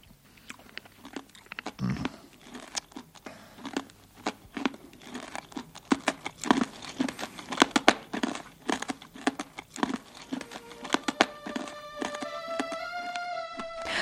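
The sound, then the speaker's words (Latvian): Candy wrappers crinkle and rustle in dense, irregular bursts as red anise-flavoured candies are unwrapped, with occasional crunchy chewing sounds; near the end a bright, sustained musical tone enters beneath the crinkling. “Ar šādām gardām skaņām arī izskan šis raidījums”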